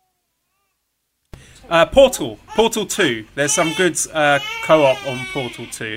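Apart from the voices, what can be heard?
baby crying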